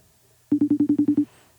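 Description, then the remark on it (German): A quick burst of eight short, evenly spaced electronic beeps at one steady pitch, a FaceTime call ringing tone, clear with no talking. “Ich kann da nicht FaceTime machen, doch, ich kann doch FaceTime machen.”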